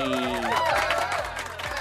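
A burst of applause and crowd noise greeting the winner of a prize draw, fairly loud and steady throughout, with excited voices and some tonal sounds mixed into the dense clapping.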